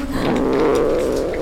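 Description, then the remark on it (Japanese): A mother cat with hungry kittens, in a dark place, makes a low, continuous rumbling purr mixed with a throaty growl, steady throughout the short moment, with no one speaking. “あなた子供がいたのそっかあなたお腹空かせた子猫ちゃんの母親だったの”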